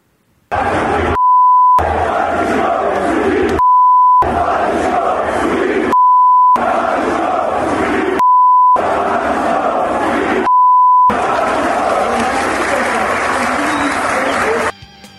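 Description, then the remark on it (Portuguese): A large crowd of Corinthians fans chants loudly and steadily in protest after the match at the Bruno José Daniel stadium in Santo André, the roar cut into sections by five short electronic censor beeps, before the chanting swells and runs on unbroken. “o que pode ter motivado o Silvinho a sentir essa pressão vindo da arquibancada logo após o jogo a torcida do Corinthians protestou e você ouve aqui no Camisa 10.”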